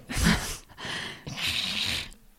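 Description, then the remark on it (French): A dog snoring, three raspy, breathy snorts in a slow rhythm, each a noisy rush of air with a brief pause between, with no talking. “Il y a un chien qui ronfle là”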